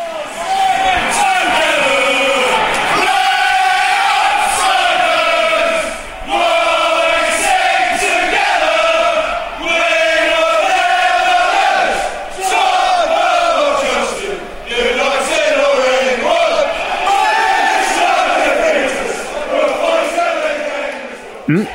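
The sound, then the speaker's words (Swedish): A large crowd of Coventry City football fans sings the club anthem "Let's All Sing Together" in unison, a loud, sustained wall of massed voices with rising and falling melodic lines and brief dips between phrases. “Det vi hörde där var eh, Coventrys eh, anthem, eller temalåt, eller klubbhymn.”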